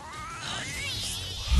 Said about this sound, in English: Now remember you gotta give it a couple of extra seconds because the cat meows for like twelve seconds. oh, I didn't realize yeah. it was on that long.